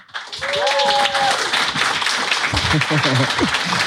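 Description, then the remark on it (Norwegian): Steady audience applause welcoming a guest to an evening event, with dense, continuous clapping throughout, accompanied by cheering or a brief whistle early on and voices talking over it near the end. “Hadde her vært for 25 år siden, så hadde jeg ikke fått applaus.”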